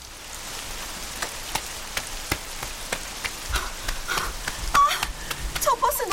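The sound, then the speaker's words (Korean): Steady rain falls with a broad hiss, punctuated by frequent sharp drips and splatters, while faint brief voice-like sounds surface near the end. “그날은 비가 오는 이른 아침이었어요.”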